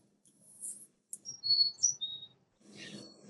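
A chickadee sings a short run of clear, pure-tone high whistled notes with no amplitude modulation, each note steady and tone-like. A soft low rumble sits underneath, and a burst of rustling noise follows.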